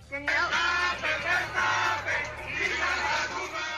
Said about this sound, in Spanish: empezaron a gritar y a cantar al señor Verstappen algo así, más o menos así. Escuchen nada más lo que le cantaron a Verstappen, ¿eh?